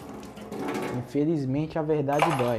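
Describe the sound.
Running tap water and the faint clatter of dishes being washed fill the background steadily while a man talks over them.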